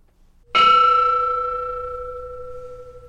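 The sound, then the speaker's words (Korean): A single flat-shaped bronze bell-chime of a pyeonjong is struck once at the centre of its flat front face, giving a bright metallic attack followed by a clear, sustained ringing tone that slowly decays over several seconds, with no talking. “이렇게 납작하게 생긴 편종의 정면 한 가운데를 치면 이런 소리가 나는데 또 이렇게 좁은 면 쪽을 치면 그 소리의 성향이 달라지옵니다.”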